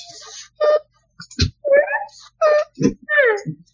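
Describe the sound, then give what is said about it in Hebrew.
A voice makes a series of short, whiny, wavering cries with gliding pitch, broken by brief pauses, fairly loud, like someone imitating a whimpering sob. “היא בוכה, היא מסתכלת לעוזריק?”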